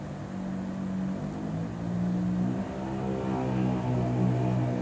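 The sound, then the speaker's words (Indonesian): A motorcycle engine drones steadily outside, its low harmonic hum shifting slightly in pitch as it grows a little louder over a few seconds, with no talking. “ya ada motor itu bukan besar itu rumah gue gak di pinggir lapangan udara ya itu suara motor”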